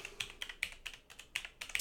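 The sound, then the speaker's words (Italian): Steady typing on a computer keyboard, spelling out the name Walchuk, about ten crisp, clicky keystrokes in under two seconds at an even, brisk pace, with no voices. “Walchuk lo scrivo sempre benissimo, comunque, veramente applausi per me.”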